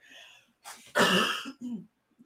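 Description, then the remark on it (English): A single strong cough bursts out with a brief throaty rasp before and after it, loud and isolated with no talking over it. “Hold on, I got a cough.”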